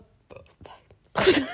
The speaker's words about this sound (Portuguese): O que é que aconteceu? tu arrotaste. é que ainda por cima arrotou na minha direção.